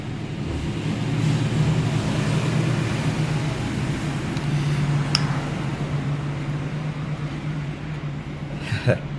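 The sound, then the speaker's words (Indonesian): A train rumbles past on rails near a boarding house, a steady low roar with a droning hum that holds for the whole stretch, joined by a brief metallic squeal near the end. “suara kereta ya ya kosan gue hampir dekat dengan rel kereta jadi sorry kalau misalnya ada suara kereta lewat mohon dimaklumi”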